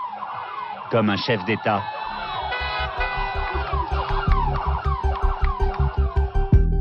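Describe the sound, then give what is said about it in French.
Police sirens of a convoy of about ten cars in Guinea, with traffic cut off, wail loud, several overlapping rising-and-falling tones pulsing steadily like a passing convoy, with a voice speaking briefly over the din. “Un convoi exceptionnel l'attend, une dizaine de voitures, des centaines de policiers la circulation coupée.”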